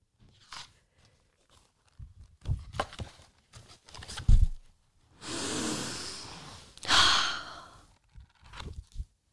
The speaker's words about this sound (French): Attention, je vais ouvrir le livre.